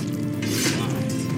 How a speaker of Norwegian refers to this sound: Menn som trekker sverd for å slåss.